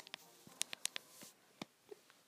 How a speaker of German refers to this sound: Ja, falls ihr euch fragt, was das Klicken ist, ich mache eben, ich habe gerade ein bisschen lauter gemacht.